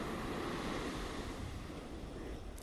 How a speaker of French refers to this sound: et sens ces petites vagues commencer à chatouiller tes pieds, à venir sous tes talons, et repartir. Ressens cette eau qui vient jusqu'à toi, jusqu'à ton ancrage dans les pieds, à l'arrière de tes talons.